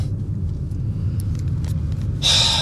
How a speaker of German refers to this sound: Und ich muss jetzt erstmal die Klimaanlage im Auto anschalten, denn es ist sehr warm.